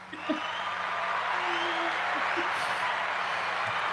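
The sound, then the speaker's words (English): A large crowd applauds and cheers in a steady, dense wash of clapping and voices that stays loud and unbroken from start to finish. “yeah, live audience. They're cheering. They're screaming.”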